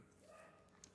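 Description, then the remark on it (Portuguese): A female dog barks once, a short sharp bark near the end, over a faint, steady background with no one talking. “e no fundo vocês podem escutar minha cachorra latindo, provavelmente o gato do vizinho aqui, né?”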